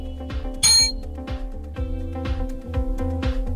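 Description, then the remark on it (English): A single bright, metallic ring from a hand bell, rung to signal that a speaker's time is up, sharp, rising above a steady rhythmic musical backdrop with a low, thumping pulse. “Remember, once once I if I hear you literally boosting your argument, I'm going to ring this bell and your your time is up.”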